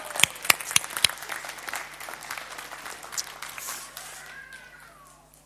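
audience clapping

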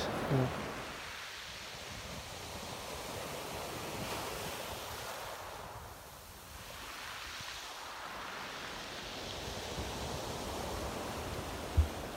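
sea waves and wind

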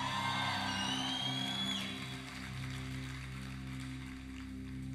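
audience shouting in praise

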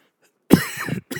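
cough

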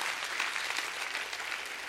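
audience clapping hands

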